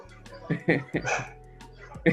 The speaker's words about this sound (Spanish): En el pasaje hay 35 perros. 35. Y hasta ahora ladran al unísono, ¿cachai?